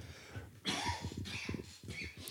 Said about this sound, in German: also Huster, da.